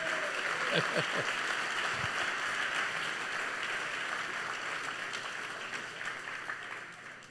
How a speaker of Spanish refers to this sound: Démosle palmas fuertes a nuestro Señor, gloria a Dios.